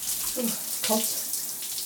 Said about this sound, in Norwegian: Kan du ta tida på meg mens jeg dusjer? Fra nå. Vi er der nå. Eldstejenta tar tida på meg i dusjen.